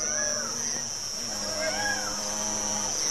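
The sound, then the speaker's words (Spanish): Cows low in drawn-out, wavering calls over a constant high, shrill drone of crickets and cicadas, with faint outdoor background noise throughout. “Mientras escuchamos los grillos, las chicharras, las vacas, los pájaros y los niños.”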